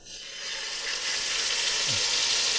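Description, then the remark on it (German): Food sizzles in hot frying oil, a steady, bright crackling hiss that swells quickly at the start and then holds loud and even throughout. “So, das Öl ist heiß.”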